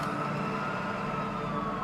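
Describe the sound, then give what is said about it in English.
An ambulance carrying a bleeding injured man speeds off from a farm, its siren wailing steadily over low engine and road rumble, holding a fairly constant loudness for the short stretch, with no one speaking. “They quickly get him loaded into the ambulance and speed off.”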